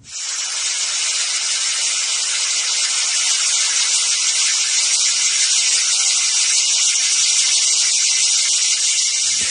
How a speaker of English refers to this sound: let's hear a quick clip from it, uh, from the, the song of the cicada